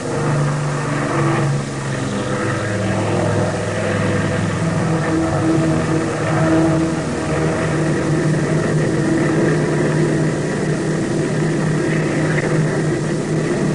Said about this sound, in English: The engines roared, and I felt the familiar pull of speed as the big plane raced down the runway. And within a matter of seconds, we were airborne.